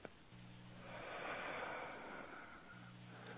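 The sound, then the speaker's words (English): One slow, deep breath: a long airy inhale swelling into a soft, drawn-out exhale, with no talking and a faint low hum underneath. “Everyone, let's take a nice deep breath. And release it.”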